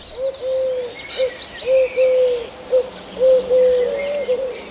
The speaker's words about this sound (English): the ones that look um, very sort of pinky, fawny coloured with a, um, a black band across, and those are collared doves. And they make a sound which has got three notes, so it's da da da da da da.